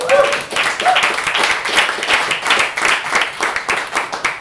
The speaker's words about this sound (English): We have William here and Bill here in the audience. Bill, round of applause for Bill there, everyone.